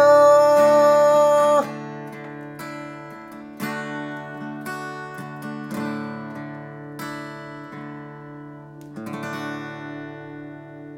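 The closing bars of a 1990 Japanese pop ballad: sustained, ringing chords change every couple of seconds, fairly loud at first and then gently softer, with no voices, ending on a held final chord.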